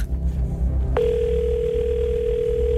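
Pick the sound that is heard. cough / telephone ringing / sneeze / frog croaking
telephone ringing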